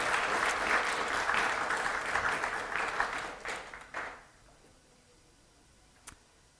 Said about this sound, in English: Uh, not just another round of applause, I think, just for all the effort they've put in. Uh, thanks.